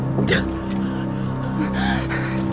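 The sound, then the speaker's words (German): A man retches, heaves and vomits, with strained, gasping bursts and choking vocal sounds over a few seconds, loud and continuous with no clear words. “so eine Scheiße! Kommt der Kerl hier hin, um sich auszukotzen?”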